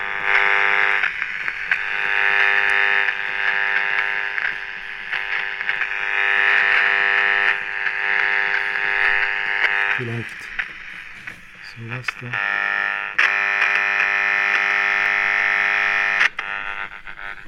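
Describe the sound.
A harsh, steady electronic buzz with dense harmonic tones drones loudly from an old circuit-bent transistor radio as its contact points are probed, breaking into brief stuttering gaps and pitch shifts midway before resuming; a voice speaks briefly underneath. Recorded in an atelier in St. Gallen, Switzerland.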